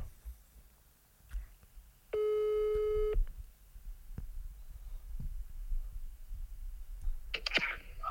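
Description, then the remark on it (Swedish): A single steady telephone ringback tone as a call is placed to Alexander Pärleros sounds for about a second, clear and fairly loud, against a quiet background with faint low rumble and a few soft clicks. “Jag ska ringa nu och sälja in en slott i mitt sommarprat till Alexander Pärleros Jag ska ta fram mitt mest säljande jag Och om Pärleros inte svarar, då, ringer vi, då har vi en backup”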